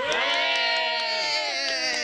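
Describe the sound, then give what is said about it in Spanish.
A loud crowd ovation: sustained cheering and whooping voices over a dense wash of clapping, holding steady for about two seconds. “Como siempre, te despedimos entre ovaciones, aplausos.”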